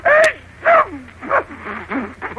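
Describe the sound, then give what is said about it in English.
A man sneezes several times in a row, caused by flowers tickling him, loud voiced bursts about half a second apart, over a faint steady hum like an old radio recording. “How dare you sneeze and all before me?”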